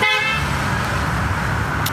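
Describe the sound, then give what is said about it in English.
A short car horn honk sounds right at the start, then fades into a steady wash of road and traffic rumble for the rest of the moment. “Someone just honked.”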